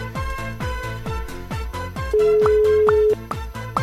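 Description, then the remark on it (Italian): A steady telephone ringback tone of an outgoing prank phone call sounds for about a second over a loud, thumping music track with a rapid, regular bass beat; no one speaks. “Squilla, squilla, S- squilla silenzio squilla.”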